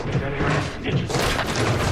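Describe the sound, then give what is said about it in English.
In an advertisement, a man crashes down from the ceiling into the main area of an office with a heavy crash and thud. Rattling debris and clatter spill over a dense, noisy backdrop that stays loud for the whole two seconds. “He crashes down on the other side in the main area of the office.”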